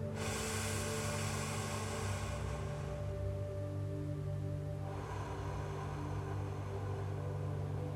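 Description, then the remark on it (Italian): A slow, deep breath through the mouth, a long airy exhale followed after a short pause by another breathy rush, over a steady low electrical hum. “Ancora un respiro profondo con la bocca.”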